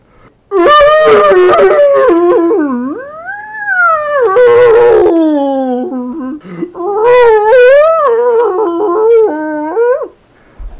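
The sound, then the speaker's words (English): A whale, caught by a larger whale, wails loudly in long, sliding cries that rise and fall in pitch, nearly continuous for about ten seconds with a brief dip midway, unaccompanied by talk. “And here is the sound of a whale right when it has been caught by a larger whale.”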